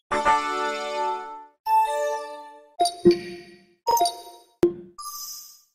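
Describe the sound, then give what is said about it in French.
A string of soft, bright electronic chime tones, the Microsoft Windows 11 startup sound played on a computer, several ringing notes with gentle decays, clean with no voices. “Voilà, c'est la nouvelle identité sonore de Windows. C'est ce que vous entendrez si vous l'installez sur votre ordinateur.”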